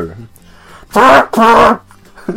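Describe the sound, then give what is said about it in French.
Someone blows their nose in two loud, honking blasts, one right after the other, with a quiet murmur before and after. “je vais moucher right là parce que j'ai la goutte du bout de dîner.”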